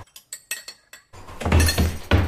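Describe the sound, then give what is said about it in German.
Glasses clink sharply about six times in quick succession in kitchen cupboards, then a louder, continuous clatter follows as plates in the cupboards rattle and scrape against each other. “Dann hier in den Schränken haben wir ganz viele Gläser. Und was ist da drinnen? Teller.”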